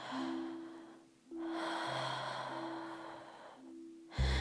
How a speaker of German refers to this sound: ganz bewusst atmen und dann vielleicht auch mal euren ganz normalen Fluss des Atmens zu lauschen und zu zuzulassen, ganz normal zu atmen, einfach da zu sitzen, da zu liegen. Euer Atem nicht zu beeinflussen.